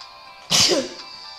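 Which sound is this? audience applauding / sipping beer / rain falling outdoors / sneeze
sneeze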